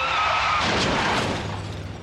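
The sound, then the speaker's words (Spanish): A car crash test with crash test dummies and shattering glass: a brief squeal gives way to a loud burst of crunching impact and breaking glass that fills the whole two seconds, with no voices. “Los domis de choque revelan el daño que puedes sufrir al chocar en un auto.”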